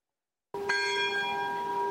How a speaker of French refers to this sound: Les cloches sonnent, annonçant le début de la procession.